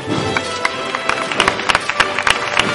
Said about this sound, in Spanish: Aplaude Jerez a la Virgen de la Amargura, que anda, que camina por las angustias, al compás del vaivén de los varales.